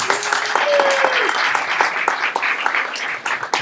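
audience applause and cheering

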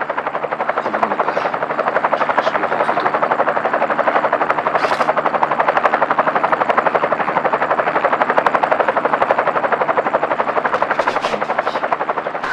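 low-flying helicopter

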